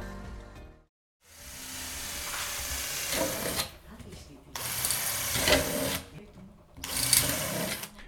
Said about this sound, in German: Er bohrt Löcher in eine Dose.